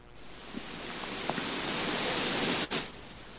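A steady hiss of electrical static from a loose headphone plug that swells gradually, with a brief crackle and a sharp dropout near the end, heard alone without any voices.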